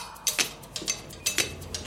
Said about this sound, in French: Minuterie